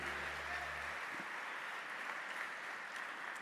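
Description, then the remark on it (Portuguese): An audience applauds the Lord steadily during a church service, a dense wash of many hands clapping at once that holds for several seconds, with a low hum underneath at the start. “Você pode aplaudir o Senhor que é bom. Pode aplaudir aí, meu filho.”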